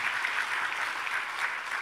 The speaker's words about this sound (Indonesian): Yang masih percaya itu berikan tepuk tangan yang meriah bagi Yesus Tuhan kita. Haleluya.